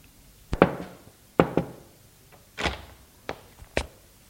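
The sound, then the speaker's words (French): Knocking on a wooden door, several sharp raps in loose pairs and single hits spread over a few seconds, clear, with no voices. “On frappe à la porte.”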